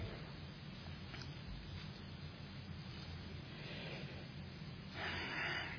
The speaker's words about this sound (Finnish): Mulle paras palaute on se, kun mä kuulen tätä rapinaa, kun ihmiset kääntää raamatun sivuja ja tietää sen ainakin, että, että seurataan. Se on paras, paras palaute.